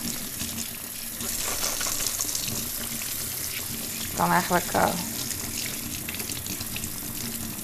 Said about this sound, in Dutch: Ik spoel even een. Eh, ik was even een waterfles eh, voor mijn zoon. Die gebruikt hij altijd naast de computer. Het is lekker, het water is warm.